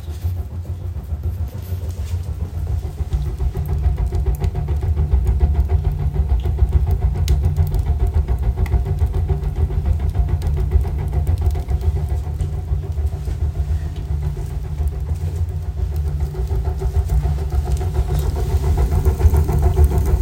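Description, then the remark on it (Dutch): A wood stove roars as it is lit with all the dampers open to get the draft going, a steady, deep rumbling draw that holds level for the whole stretch, with no voices. “Want als je de kachel aanmaakt en alle schuiven nog open hebt om de trek op gang te brengen, dan klinkt dat als volgt.”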